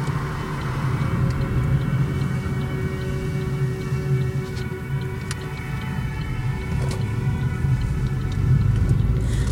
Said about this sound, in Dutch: Ja, hier rijden we door het dorp heen. Misschien dat daarom ook de sirenes iets meer weer klinken. Ik denk dat dit Hoertin is. We rijden in onze huurauto, zo'n 80 kilometer ten noordwesten van Bordeaux, dicht bij de kust.